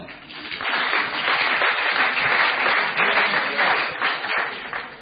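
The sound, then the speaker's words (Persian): An audience bursts into steady, dense applause, many hands clapping together in a loud, continuous wash that holds for several seconds before easing slightly at the end. “تشویق کنید این آقا رو”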